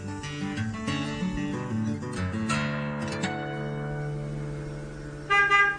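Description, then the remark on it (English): A car horn, sounded by the town mayor waiting just outside at half past seven in the morning, honks almost continuously: a steady buzzy blare that shifts pitch a couple of times and ends in a short, louder blast. No one speaks. “He's just outside. He's been beeping for a while.”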